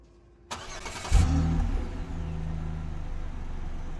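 A large bus engine cranks to life with a sharp burst, then settles into a deep, steady rumble as the bus begins to move off, fairly loud with no talking.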